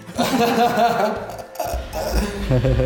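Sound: glasses clinking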